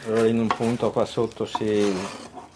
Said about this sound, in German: Ich schabe noch ein Stück Holz heraus. Eine Präzisionsarbeit, aus der geschwungene Kerben im Holz hervorgehen. In diese Kerben wird das Ruder für jeweils verschiedene Manöver gelegt.